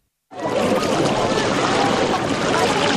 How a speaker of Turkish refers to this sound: Deniz bisikletleri toplanmış, birbirine bağlanmış ve çekiliyor.